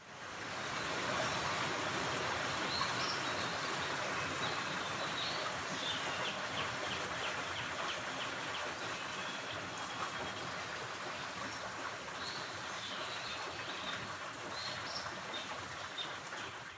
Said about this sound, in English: So an American dawn chorus could be very different.